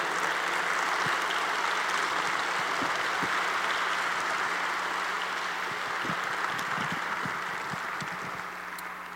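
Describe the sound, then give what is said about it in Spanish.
A church audience applauds the King (God) during a sermon, steady, dense applause filling the whole stretch, a broad hiss of many hands clapping at once that holds even and only eases slightly near the end. “si quieres aplaudir, apláudele fuerte al rey.”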